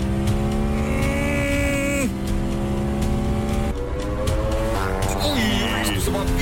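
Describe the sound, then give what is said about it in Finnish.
The loud, steady engine of a Honda lawnmower, called the world's fastest lawnmower, whines higher as it accelerates, with its pitch dropping sharply at each of several gear shifts before climbing again, continuous throughout. “No, sieltä taustamusiikassa se pikkuhiljaa siitä kiihdyttää lähtee. Vaihdetta isommalle, vaihdetta isommalle, pitkä suora, sieltä anna”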